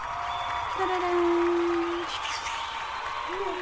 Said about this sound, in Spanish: Ahora tenemos e-, efectos nuevos que han llegado desde Miami, desde las productoras así, hay aplausos, gritos.